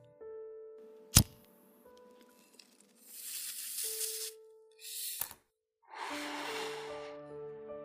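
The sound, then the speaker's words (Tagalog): A lighter is flicked with one sharp click to light a cigarette, followed by several breathy hissing bursts of gas or flame. Faint steady background tones continue underneath, and no one speaks. “Ito na yung lighter oh. Ikaw na magsindi.”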